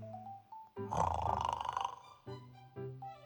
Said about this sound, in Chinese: 那位老奶奶身上有一个小孩儿，做梦的小孩儿，在打鼾的老奶奶身上，老奶奶在温暖的床上。